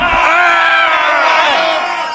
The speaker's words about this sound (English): We're not going to leave you with a song. We're just going to yell.